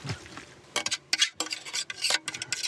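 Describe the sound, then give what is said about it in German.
Dishes and cutlery clink and scrape in a desert camp's open field kitchen, where a cook crouches by gas flames on the ground, stirring pots and cutting vegetables; a busy, irregular run of bright metallic taps and rattles with a few sharper clatters, and no voices. “Äh, das ist die Küche der Wüste.”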